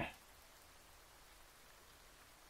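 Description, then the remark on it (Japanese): Steady rain falls with a soft, continuous hiss, drops pattering on a surface at an even, gentle level with no voices. “同棲してから初めてだよな。休日の雨って。”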